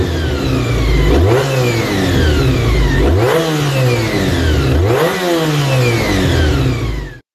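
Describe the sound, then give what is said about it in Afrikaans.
The V4 engine of a Honda NC30 motorcycle revs hard again and again, its pitch climbing and dropping in roughly four quick, evenly spaced bursts, loud throughout, with no talking. “En ek wil net gou net speel gou vir ons daai klankgreep van hoe daai enjin klink.”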